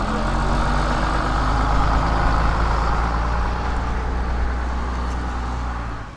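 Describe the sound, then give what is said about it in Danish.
A large high school bus arrives and idles, a deep, continuous rumbling drone with faint mechanical hum and no voices, holding level for several seconds before easing slightly. “Nu kommer uh, gymnasiebussen.”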